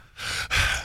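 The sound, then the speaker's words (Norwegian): A person breathes deliberately and consciously in an exaggerated way: a sharp inhale followed right away by a forceful exhale, breathy, with a brief pause between the two. “Så må man fysisk liksom puste på en periode.”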